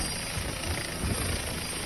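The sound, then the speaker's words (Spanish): A helicopter's rotor runs steadily at night, heard in a played video, in a dense, continuous roar with a low, throbbing chop underneath. It stays fairly loud and even throughout, with no voices. “Él va caminando a su helicóptero como, no sé, como ya, no sé a dónde iría.”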